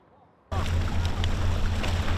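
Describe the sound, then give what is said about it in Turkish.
After a brief quiet start, a boat engine's low steady drone rises abruptly alongside broad wind and splashing water noise, a continuous outdoor rumble on open water in the Gulf of İzmir, Turkey. “Burası İzmir Körfezi.”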